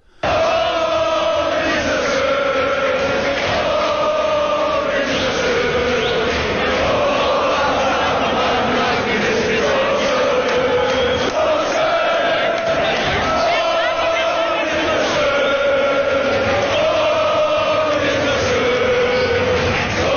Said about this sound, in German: jetzt aber auch genug gesungen nach Heiko Wasser und den Lautern-Fans